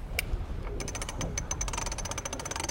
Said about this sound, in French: Alors ah, ça c'est le winch.